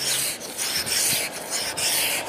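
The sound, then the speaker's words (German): Steady scraping, a rough rasping sound in repeated strokes with brief pauses between them, like a scraper dragged firmly across a hard surface, on a cold, sunny Saturday morning before driving to work. No one speaks. “Das heißt, noch fahre ich nicht, noch kratze ich.”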